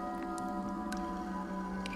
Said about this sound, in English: drip, drip, as drops of blood fall on tiles.